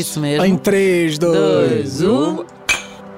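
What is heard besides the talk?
coffee cups clinking together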